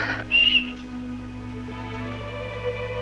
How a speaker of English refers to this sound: it cuts back to her, and she shows that she's got this whistle. I didn't really understand this whistle